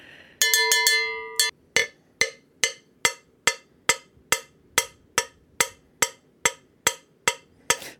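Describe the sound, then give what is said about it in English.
A cowbell is struck in a quick flurry of ringing metallic hits, then settles into a steady, even beat of sharp clanks, about fifteen more strikes, with no voices. “Come on, baby, let's hear the cowbell.”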